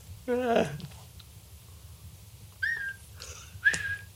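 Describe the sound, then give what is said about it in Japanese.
A short vocal sound at the start, then three brief whistled notes at an even pace, a person whistling an imitation of the LINE messaging app's notification chime, moderately loud. “これはできるんじゃない口笛。この、ラインの。”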